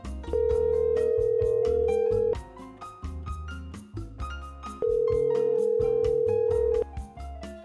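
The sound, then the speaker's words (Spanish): A telephone rings for an incoming call with two long, steady electronic tones separated by a pause, fairly loud, over a rhythmic music bed with no one speaking. “Ah, ahí está la llamada.”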